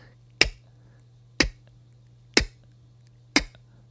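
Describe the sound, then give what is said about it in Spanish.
Four crisp, sharp mouth clicks, a beatbox K sound imitating a snare drum, made with the tongue at the back of the palate, spaced evenly about a second apart over a faint steady low hum, with no talking. “Ponemos la lengua en la parte de atrás del paladar y emitimos solo el sonido de la K.”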